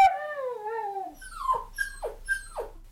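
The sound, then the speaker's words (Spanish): A wolf howls in pain: one long, wavering cry that slides downward, then three sharp falling yelps at a steady pace, fairly loud, with no talking. “Del terrible dolor, el lobo feroz huyó dando tremendos aullidos que se escucharon por todo el bosque.”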